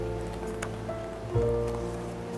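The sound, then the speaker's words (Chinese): Heavy rain hisses steadily throughout, with a low sustained tonal drone beneath it and a brief soft thump partway through. No one speaks. “下这么大的雨，会是谁呢？”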